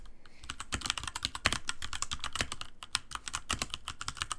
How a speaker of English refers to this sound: Oh, yeah. Yeah. That's epic typing.